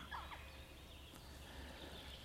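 Jackdaw calls: a couple of short, sharp chirping notes near the start, then fainter scattered calls over a steady hiss and low rumble, with no talking.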